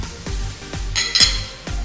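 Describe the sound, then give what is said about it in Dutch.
Glasses clink together in a toast, a short bright ringing burst in the middle, set against a steady pattern of dull low thuds repeating about twice a second. “En daar gaan we klinken.”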